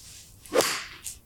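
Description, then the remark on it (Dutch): A single swift swoosh of a golf club swing with a short crisp strike as it chips the ball toward the green about 100 metres away, followed by a faint brief hiss, with no voices present. “Nou, ah, ik hoor het chipje, het chipje kraakt, maar het, het was nog wel redelijk.”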